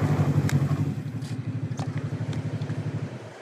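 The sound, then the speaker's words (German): A snowmobile engine runs steadily in Antarctica on a research trip toward a penguin colony, with a low, rapid pulsing throb that holds an even rhythm, then eases slightly toward the end. No voices are heard. “Nach unserem Interview im Büro der Forscher begleite ich Sie auf dem Motorschlitten zu einer kleinen Forschungsmission und endlich geht es etwas näher ran an die Pinguine.”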